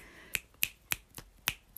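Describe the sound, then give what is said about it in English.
A quick run of about six crisp finger snaps in a steady, brisk rhythm, each a sharp bright click, with one slightly softer than the rest. No voices. “like I'm snapping my fingers.”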